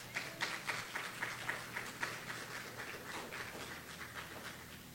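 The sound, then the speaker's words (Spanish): A crowd gives applause to Jesus, clapping steadily for several seconds, a dense patter of many hands that stays fairly even, with no voices standing out. “Un fuerte aplauso a Jesús.”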